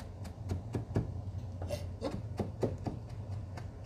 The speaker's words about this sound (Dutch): En dan hak ik het terwijl ik mijn linkerhand plat met de handballen bovenop het mes heb. Ga ik met de, snij ik met het mes of hak ik met het mes in een soort kwartier, 90 graden zo, door die peterselie. Schraap het af en toe een beetje bij elkaar.